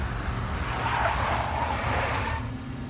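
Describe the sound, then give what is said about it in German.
A big black Mercedes tailing someone: its engine rumbles while tires skid in a long, harsh screech lasting about two seconds, then fade, leaving the low motor growl. No one speaks. “I spotted the tail as soon as I left the hotel. A big black Mercedes.”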